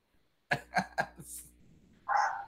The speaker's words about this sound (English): I hear the dogs barking.